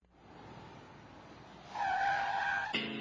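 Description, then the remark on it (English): A car skids with a loud, rising screech of tires over rough road noise, building for about a second before cutting off abruptly into a lower, harsher engine rumble. “It starts with a car.”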